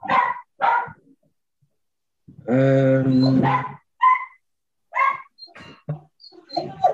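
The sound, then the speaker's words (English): A dog barks repeatedly in sharp, irregular, loud bursts in the background, with one longer drawn-out cry in the middle. Someone briefly murmurs between barks. “Dog's going uh, mad in the background.”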